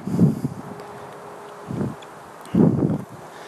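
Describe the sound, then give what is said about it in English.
Wind buffets the microphone in three low, rumbling gusts, with quieter breezy noise between them; no one is speaking. “sorry if it's windy”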